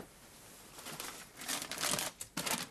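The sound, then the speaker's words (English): Crumpled paper rustles and crackles as someone rummages through a wastepaper basket for a piece of paper, a busy series of crinkling bursts that grows louder and more vigorous toward the end, with no talking. “Here it is, in the waste paper basket.”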